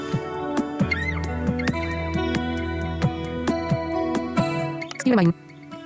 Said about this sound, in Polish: Enigma kolejny dźwięk, kolejna melodia, która może ułatwić nam wybudzenie się ze snu.